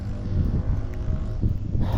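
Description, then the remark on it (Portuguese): A motorcycle engine runs steadily in a garage, a continuous low, throaty rumble with slight fluctuations, fairly loud, with no voices over it. “Tem um cara fazendo barulho de moto, ele não, não tá saindo da, da garagem.”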